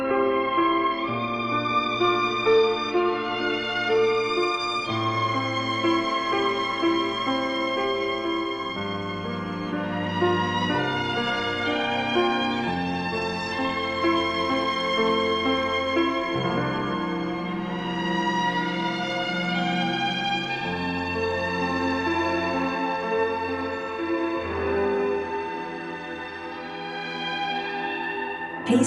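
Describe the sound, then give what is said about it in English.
A hazy, dreamy melody washed in heavy reverb, sustained tones blurring into one another over a steady low bass for nearly thirty seconds, with no voices. “Just like this melody diving into the reverb.”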